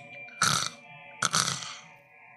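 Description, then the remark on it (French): Two harsh, rasping growls, each about a quarter-second long, burst out loud over a low steady hum, with a brief pause between them, heard among tombs at night. “Et là, tu vas entendre des, des grognements.”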